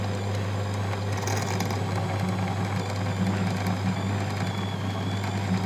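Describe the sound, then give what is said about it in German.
A drill press fitted with a new drill bit drills at slow speed with a steady, low motor hum and constant mechanical rumble and vibration, holding an even level throughout with no voices. “mit dem Standbohrer kann ich so viel präziser ganz genau da bohren”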